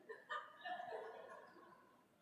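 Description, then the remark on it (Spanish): A turkey gobbles once, a quick rattling, warbling burst that trails off over about two seconds. It sounds fairly quiet, with no talking. “no va a decir así, como yo voy a decir. Guajolote.”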